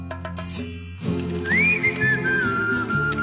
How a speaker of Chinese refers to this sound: 当年超级喜欢这段口哨声。